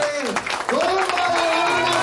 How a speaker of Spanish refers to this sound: Entonces, mi gente, ponte de pie para recibir con aplauso enorme a nuestro hermano, al Diamante Internacional desde Ciudad Juárez, nuevo Club 100.000,